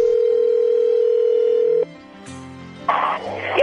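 A telephone rings on an outgoing call: a steady, single-pitched electronic tone holds for about two seconds, then cuts off, followed by low hum and bursts of hissy, rustling noise.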